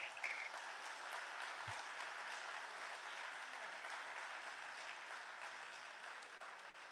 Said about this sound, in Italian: Primo che vi presento l'editore di Altaforte Edizione, Francesco Polacchi, facciamogli un grande applauso.